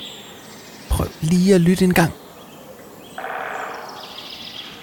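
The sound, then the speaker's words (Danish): After a short spoken line, a woodpecker drums its beak on a branch: one rapid, even burst of taps lasting about a second, moderately loud against quiet outdoor ambience. “Den der lyd er lyden af spætten, der banker eller hakker sit næb ind i bakken på en gren.”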